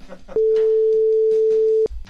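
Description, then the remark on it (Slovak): One long, steady telephone ringing tone on a call to a hospital in Košice Šaca sounds loud for about a second and a half, with faint background talk before and after it and no answer. “Že v nemocnici sa nikdy nedvíhajú telefóny.”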